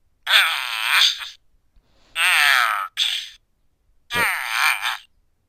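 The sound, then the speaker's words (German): A rough, raspy growl played from a button on a mini soundboard sounds three times in loud bursts of about a second each, separated by short pauses, with no talking. “Da knurrt einer.”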